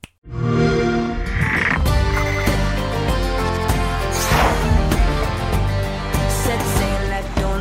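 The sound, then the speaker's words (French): Music from the trailer for the pirate video game King of Seeds: a full, loud band-style tune with rich harmonies and a steady, driving beat that starts abruptly and plays continuously without any voices. “Et eh oui Allez, c'est parti, et juste avant, on s'écoute un petit trailer.”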